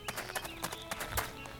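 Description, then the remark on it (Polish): Steady footsteps of a game character walking forward, about six even, fairly quick steps with crisp impacts, with no voices. “a teraz pójdziemy sobie naprzód.”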